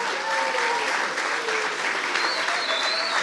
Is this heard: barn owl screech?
no